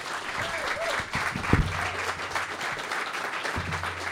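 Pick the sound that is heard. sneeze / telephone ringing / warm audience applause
warm audience applause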